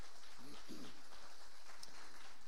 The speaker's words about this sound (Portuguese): Vamos aplaudir ao Senhor pela vida dessas pessoas.